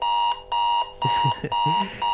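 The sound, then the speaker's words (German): An alarm clock rings loudly, a shrill electronic tone pulsing in short repeated bursts before settling into a steadier, harsher ring. “Wie wäre zum Beispiel dieser Wecker hier?”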